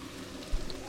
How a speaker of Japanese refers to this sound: とりあえず夜の散歩散歩しながらラジオですどうですか雨の音が聞こえますか皆さん皆さんの耳元にもね雨の音がしっかり入ってると思いますが私が今マンションのロビーを出て、えー、外に歩いているわけです